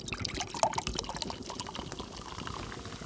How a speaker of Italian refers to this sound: Mettiamoci acqua di mare